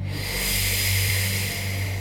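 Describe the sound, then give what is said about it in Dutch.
A steady, airy hiss of breath drawn in through loosely pursed lips, as if through an imaginary straw, sounding like soft wind, held evenly for about two seconds with no talking. “dan hoor je het geluid van de wind.”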